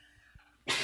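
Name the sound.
sneeze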